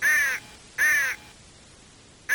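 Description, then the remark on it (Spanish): Loud, harsh crow caws ring out from birds in a tree near a tent, three raspy calls in a slow, evenly spaced rhythm with brief quiet gaps between them and no talking. “Llegaron a la carpa y se dispusieron a dormir, pero el viento silbaba muy raro y el canto de los pájaros era muy fuerte y feo.”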